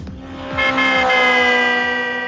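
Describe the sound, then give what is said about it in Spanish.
A car races by with a loud, steady engine whine that swells after a moment and holds strong, with no voices. “Eh, a rayo, ¿viste Julio Bayón cómo anda ese carro?”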